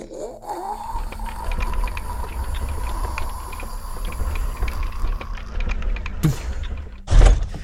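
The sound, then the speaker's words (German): A heavy door is pushed open with full force, scraping slowly over the floor in a sustained grinding drag with creaking overtones, ending in a couple of loud knocks as it reaches its stop. No voices. “Und tatsächlich, du kriegst mit, wie diese Tür sich, also du auf, wie du sie aufdrücken kannst und so richtig so, so ja, über den Boden schabt”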